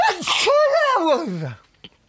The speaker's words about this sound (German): Warte, ich muss niesen.